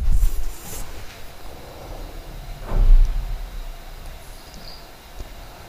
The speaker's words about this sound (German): Bumm, das war die Haustür. Jetzt habt ihr mal gehört, wie es klingt, wenn jemand von wenn jemand also geht.